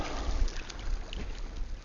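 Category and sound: nature, ocean waves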